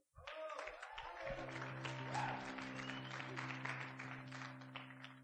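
An audience applauds steadily for about five seconds, a dense, even wash of many hands clapping, with a sustained low humming tone joining underneath after the first second.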